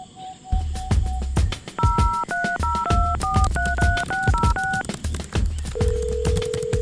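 A rapid run of telephone keypad dialing beeps, over a dozen short two-tone presses in quick rhythm over a thumping bass beat, ending with one long steady tone.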